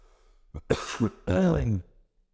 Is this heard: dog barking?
no